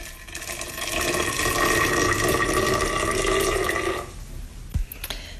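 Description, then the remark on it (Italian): About 250 ml of boiling water pours steadily for about four seconds with a rushing, bubbling sound onto a ready-made henna powder of lawsonia and indigofera at home, then a few soft scraping and stirring noises follow in the thick paste. No one speaks. “bisogna versare l'acqua bollente e mescolare la pappetta.”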